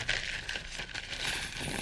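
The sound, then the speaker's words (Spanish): A handful of a hundred gold coins clinks and jingles continuously for a couple of seconds as they are handed over, a soft, bright metallic rustle, fairly quiet, with no one speaking. “Le voy a dar unas monedas.”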